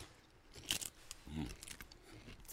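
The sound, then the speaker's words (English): A sharp crunch as a tortilla chip dipped in guacamole is bitten, followed by a few softer chewing sounds, with no talking. “The crunch on air just sounds amazing.”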